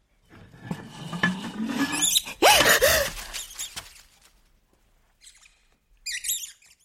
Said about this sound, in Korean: 항아리 뒤에 숨어 있던 쥐가 재빨리 장작더미 뒤로 달아났다. 쥐 소리 때문에 너무 놀라 항아리 뚜껑을 떨어뜨릴 뻔했다.